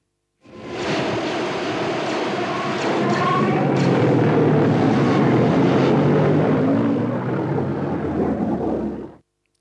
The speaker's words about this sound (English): You know what it is? It's Slave One flying away uh, towards the end of uh, The Empire Strikes Back. So that must have been, um, yeah, Leia and Lando and Chewie shooting at Slave One as it was taking off.